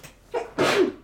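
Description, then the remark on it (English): A single, somewhat stifled sneeze: a short voiced intake followed by a breathy, hissing burst, moderately loud and alone with no talking. “Like, nice sneeze.”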